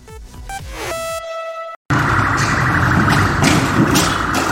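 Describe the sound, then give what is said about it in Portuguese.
A loud electronic siren wails in shifting, steady tones for under two seconds, then cuts off abruptly. After a brief silence comes a heavy, continuous roar of engine and road noise. No one speaks. “A sirene ligada, foi olhar para trás.”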